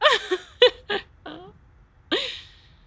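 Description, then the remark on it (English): A series of sharp, high-pitched vocal screams in quick bursts, followed after a short pause by one longer, wavering scream, loud with no talking. “I love this scream. Absolutely love this scream.”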